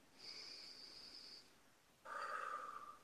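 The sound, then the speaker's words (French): A slow, deep breath taken as part of a breathing exercise: a faint, thin whistling inhale lasting over a second, a short pause, then a slightly stronger, lower-pitched exhale through the nose. No one speaks. “Alors, on va faire une respiration.”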